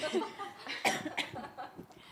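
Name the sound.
cough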